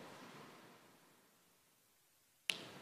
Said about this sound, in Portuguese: Estalar de dedos?